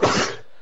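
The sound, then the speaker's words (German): A single sharp sneeze bursts out, loud and breathy at first, then fades quickly into quiet. No talking accompanies it. “Gesundheit.”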